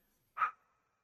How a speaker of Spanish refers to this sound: Eh, tenemos las repisas y nos regalaron, por ejemplo, estos silbatos que están bien chidos. Eh, nos regaló una, una fan y, suena así.